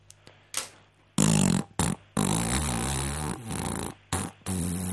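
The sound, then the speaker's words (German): A horse farting: loud, rumbling, sputtering blasts in several bursts with brief gaps, the longest lasting a couple of seconds, with no one talking. “und du musst sagen, ob das Pferd nur äh, gefurzt hat oder ob auch Pferdeäpfel mit rausgekommen okay.”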